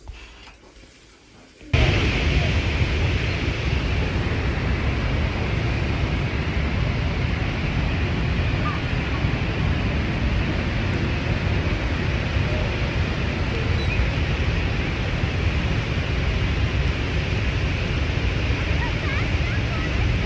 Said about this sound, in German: Ein kleiner Nachtrag. So klingen die Niagara-Fälle.